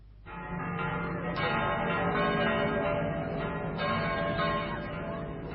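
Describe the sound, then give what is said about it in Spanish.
Church bells ring continuously, with overlapping strikes blending into a dense, reverberant wash of tones and fresh clangs cutting through every second or so. No voices are heard. “Campanas, clamorosas campanas de mi pueblo, lejanas campanas, ¿cómo parece que os estoy oyendo?”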